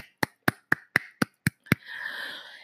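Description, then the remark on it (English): Seven sharp, evenly spaced claps ring out, then give way to a sustained wash of crowd applause and noise that fills the last second, a round of applause for a fashion show that opened the show. No one speaks. “So let's do a round of applause for that.”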